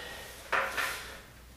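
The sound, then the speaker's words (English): Two quick scraping knocks as a heavy wooden main door panel is shifted and set back into place, the second slightly softer, with no voices. “I think we're ready to get the main door panel back into place.”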